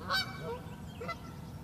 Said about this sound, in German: Ich glaube, die Enten wollen auch ihr Sexerlebnis erzählen. Ja. Aber ihr dürft nicht.